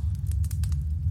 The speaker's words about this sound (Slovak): Počuť len blkotanie ohňa, ktorý bol kedysi vatrou, a tichý plač ženy v strede.